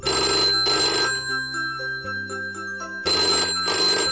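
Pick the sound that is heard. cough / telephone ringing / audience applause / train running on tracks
telephone ringing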